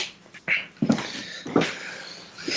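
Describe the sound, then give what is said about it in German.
A cat makes a few short, strained meowing cries, three or four separate bursts spaced about half a second apart, moderately loud with no talking. “So. Ruhe. Das nenne ich Katze.”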